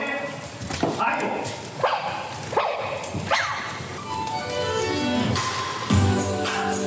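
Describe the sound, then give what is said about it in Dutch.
A Sony AIBO robot dog, at the announcement of its return, gives about four short, synthetic-sounding barks, evenly spaced over the first few seconds, followed by longer electronic whines and sweeps against a steady background of room noise. “Een tijdje geleden kondigde Sony aan dat AIBO terug zou komen. Dat klonk toen zo.”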